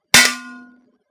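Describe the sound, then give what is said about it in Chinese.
A single loud metallic clang as a metal object hits the floor while two people fight and throw things, a sharp crash followed by a ringing, resonant tone that fades out within about half a second. No voices. “这个声音，金属摔到地面上的声音，叫人浑身一个冷战。”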